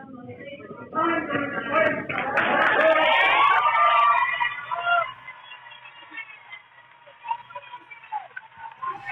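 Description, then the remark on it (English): A crowd at a board meeting erupts in loud, overlapping shouts mixed with bursts of clapping as former Virginia State Senator Dick Black speaks against critical race theory, swelling for a few seconds before settling into scattered voices and murmuring. “Now, this is Virginia State Senator Dick Black, former senator, speaking out against critical race theory in the board meeting, and the crowd could not stay silent.”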